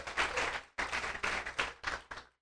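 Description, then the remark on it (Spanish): A short burst of applause from a small group, several hands clapping together in a dense, loud patter that stops and restarts a few times before fading out. “No, no, nosotros nos quejamos mucho cómo manejan las mujeres, pero yo creo que podemos darle un aplauso.”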